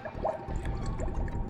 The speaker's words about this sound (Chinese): 我听见了饮水机里面开始有那种冒那种小水泡。你知道，就接水的时候都会冒那小水泡，但是冒了水泡，水龙头却不出水。